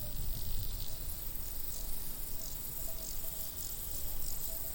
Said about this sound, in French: Entre ses feuilles charnues, aux airs de toupet d'ananas, une grenouille lance son chant. Cette ritournelle réveille en réponse le cœur de dizaines d'autres grenouilles cachées dans l'entrelac des broméliacées qui recouvrent les branches du seibo.